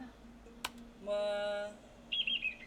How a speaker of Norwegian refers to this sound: Så kan vi prøve her da på å se om vi får han til å kvitre.